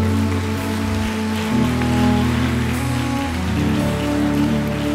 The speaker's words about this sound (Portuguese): Se você recebe essa palavra, aplauda Ele em nome de Jesus.